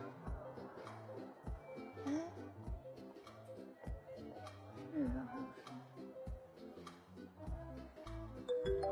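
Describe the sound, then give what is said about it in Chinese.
A mobile phone rings at a food market while its owner is buying fish, a steady, repeating electronic melody of stepped tones, moderately loud, while voices murmur around it. “啊，手机，哎，手机哪去了？”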